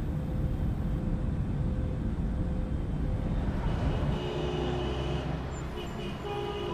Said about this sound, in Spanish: Oh, ¿Este continente es una ciudad? Tantos sonidos como que lo ponen a uno en modo alerta.